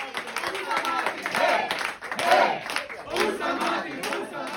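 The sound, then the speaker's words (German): A large crowd applauds the chancellor and then Martin Gruber, with steady, dense clapping mixed with loud cheering and shouting voices that swell and fall throughout. “Ja, man hat es gehört, zuerst wurde dem Kanzler applaudiert, er hat das dann von sich abgewendet, hat Martin Gruber applaudieren lassen”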